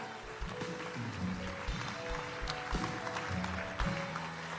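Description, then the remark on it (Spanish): An audience applauds steadily, a dense crackling wash of many hands clapping at once, holding an even loudness for several seconds with a low background hum underneath. “Bueno, si no, si yo no hubiera tomado esa sesión, tal vez ustedes no estarían aquí aplaudiendo y escuchando.”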